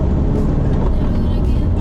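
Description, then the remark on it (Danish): A car accelerating at high speed during a sports car event, its speed climbing from 130 to 207, heard as a loud, steady roar of engine and road noise that fills the whole short moment without letting up. “Kom 130, 140, 150, 160, 170, 180, 190 og 200 207.”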